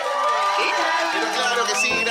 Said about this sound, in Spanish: Gracias por estos aplausos que nos levantan el ánimo, aunque son grabados. La gente que se agolpa. Es feo decir que son grabados, ¿no?